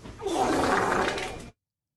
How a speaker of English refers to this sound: You just got farted on. I'm just pressing buttons now.